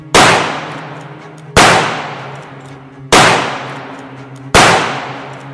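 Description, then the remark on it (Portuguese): Four loud carbine shots fired in sequence from inside a horse-drawn carriage, evenly spaced about a second and a half apart, each a sharp crack trailing into a long, ringing decay with a low metallic hum. “Tormenta, beneficiando da posição elevada dentro do carro, apontou a carabina com sangue frio.”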